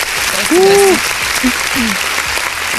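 Dense, steady applause from an audience welcoming a guest onto a show, a continuous wash of clapping, with a brief rising whoop or cheer-like tone and a few short vocal sounds breaking through.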